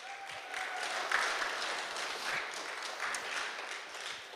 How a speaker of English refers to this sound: Good morning, church family. Woo! Clap it up for Testimony Sunday.